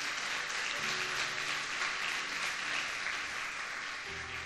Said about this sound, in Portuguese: Dá uma salva de palmas ao Senhor porque Ele é bom.